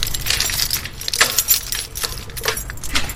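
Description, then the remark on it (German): Keys jangle and clink repeatedly in bright, metallic bursts as the door at a garden gate is unlocked, with a steady low rumble underneath and no talking. “Und jetzt schließen wir mal”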